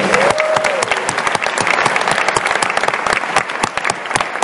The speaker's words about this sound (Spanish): ¿Quién está por primera vez aquí en la convención? Levanten su mano, por favor. Buenísimo, un aplauso para ustedes.